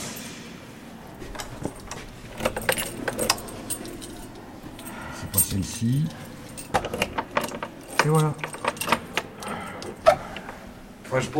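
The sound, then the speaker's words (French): A bunch of Vachette keys jangles in repeated bright metallic clinks and rattles, with short pauses between, as a voice murmurs softly in the background. “je vous vois sortir les clés euh, tel Saint-Pierre”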